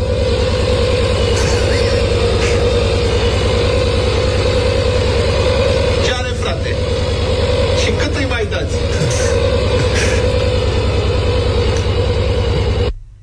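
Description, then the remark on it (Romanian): A washing machine in its spin cycle, a loud, steady mechanical drone with a deep rhythmic hum, broken by a brief burst of rattling and knocking partway through. “Asta e mașina. Mașina mea de spălat face așa.”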